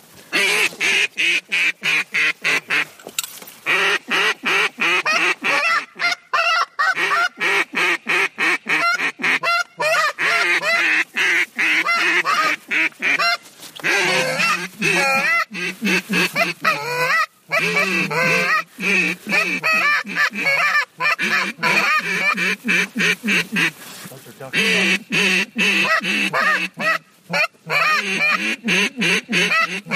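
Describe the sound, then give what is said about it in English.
A flock of about 100 geese flying in a V formation honks continuously, dozens of overlapping loud calls in a dense, chattering din that fills the whole stretch, steady with only brief gaps. “about 100 geese flying in a V right in front of us. And they're heading this way.”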